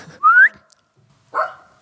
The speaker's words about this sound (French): Le chien de garde. Petit tu viens